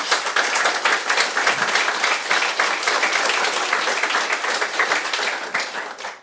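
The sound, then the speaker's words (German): Dense, steady applause from an audience at a livestreamed live show, given as thanks, many hands clapping at once in a continuous loud wash that holds for several seconds before tapering off at the end. “Also auch da ein ganz großer Applaus.”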